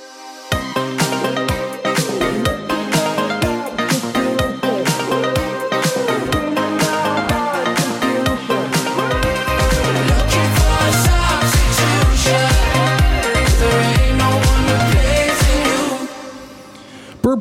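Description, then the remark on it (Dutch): An upbeat pop dance track plays loud and full, with a sung melody over bright synths. A steady thumping kick drum joins partway through, and the song cuts off abruptly near the end. “Dat vind ik het mooi om even een plaatje op te doen.”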